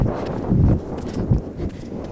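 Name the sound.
wind blowing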